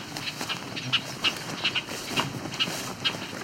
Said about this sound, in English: Females like to hide a lot, so I'm assuming these are females. seeing at least one female hiding in a tree now. So all this annoyed chatter are all bobolinks.